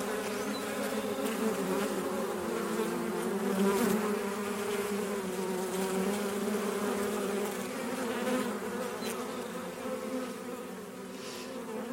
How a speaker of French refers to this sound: C'est abeille, abeille, Mexique. Ça arrive tout de suite.